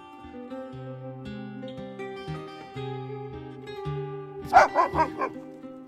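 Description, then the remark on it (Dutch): Dogs bark when cancer is mentioned, in a quick burst of four or five sharp barks near the end, rising over a steady backdrop of sustained, organ-like musical tones. “als je over kanker begint, gaan ze blaffen.”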